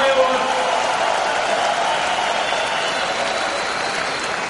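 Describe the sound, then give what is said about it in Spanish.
Sustained applause from an audience at a company business meeting, given as an ovation for newcomers, a dense steady clatter of many hands clapping at an even loudness for several seconds, with no single voice standing out. “Jóvenes que están aquí, los que hayan venido nuevos, démosles un aplauso a los nuevos, una super ovación”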